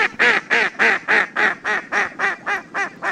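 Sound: duck quacking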